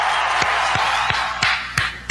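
A steady wash of audience applause welcoming a guest on Hablando de cómics, dense and fairly loud, with sharper claps standing out at a regular beat about three times a second. No voices are heard.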